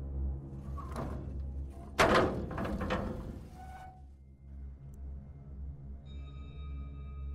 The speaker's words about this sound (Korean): 옥상 문 앞에 겨우 다다르자 문을 열었을 때 눈이 뻥 뚫린 귀신이 얼굴을 내밀고 기다리고 있는 건 아닌가 하는 생각도 들어 망설였지만 아이는 이 지옥 같은 시간을 빨리 끝내고 싶은 마음에 문을 활짝 열었다.